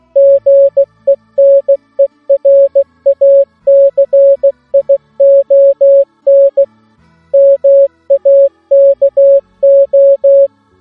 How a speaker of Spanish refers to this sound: Eh, os voy a mandar un mensaje. ¿Conocéis Código Morse? Mira, mira.